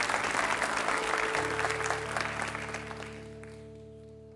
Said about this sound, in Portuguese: Aleluia! Pode aplaudir é para ele.